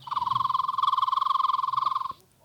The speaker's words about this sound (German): den Rotbauch-Fliegenschnapper.